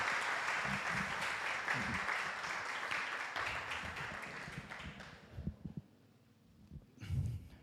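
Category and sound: crowd, audience applauding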